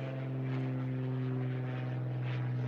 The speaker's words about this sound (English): Airplane. We're down here by the new Smyrna Beach Airport.